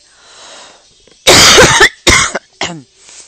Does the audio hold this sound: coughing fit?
yes